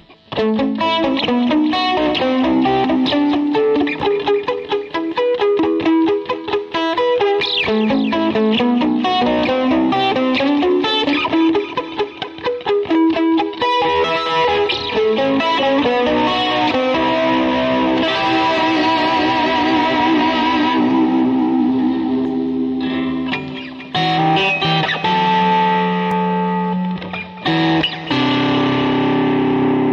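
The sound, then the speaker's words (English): A Stratocaster-style electric guitar without a locking nut, on its out-of-phase pickup setting, plays a steady stream of bright, quick notes and chords through an effects unit, with a touch of distortion, loud and continuous for the whole stretch with no talking. “That sounds like a strat.”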